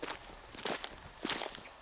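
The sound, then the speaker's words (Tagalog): Footsteps of a person walking alone along a mountain path toward a bamboo grove to harvest bamboo, carrying a small sack: a handful of crunchy, uneven steps at an unhurried pace, fairly soft, with no voices. “Habang naglalakad ay kampante ako.”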